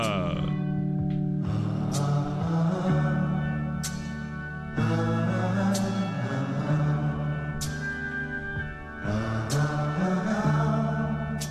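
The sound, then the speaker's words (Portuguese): A large bell of the Cathedral of Nossa Senhora Aparecida tolls repeatedly, each strike blooming into a rich, humming resonance that overlaps the next, at a slow, uneven pace and fairly loud, with no one speaking. “Momento que toca o um sino da Catedral de Nossa Senhora de Aparecida.”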